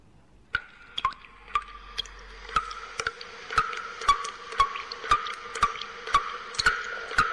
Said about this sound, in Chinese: 这是在屋檐上的滴水的声音，你听出来了吗？